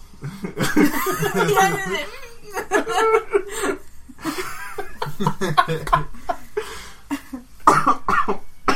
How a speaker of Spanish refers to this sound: Pero eh, ven, él sí sabe toser. Él sí sabe toser.